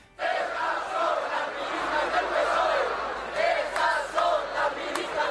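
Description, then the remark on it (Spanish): A large protest crowd on Ferraz, where inflatable dolls are displayed, shouts together in a loud, rhythmic chant outdoors, many voices rising and falling in unison with bursts of yelling, sustained throughout. “Pero en Ferraz tan pronto se reza como se exhiben muñecas hinchables al grito de”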